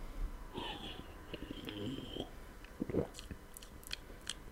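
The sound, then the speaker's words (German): Close-up mouth sounds of someone sipping and tasting a foamy, ginger-flavoured fizzy drink, with wet smacking, soft slurps and faint crackling fizz, no speech, very near the microphone. “Ich probiere jetzt. Ich gehe ganz nah ran ans Mikrofon.”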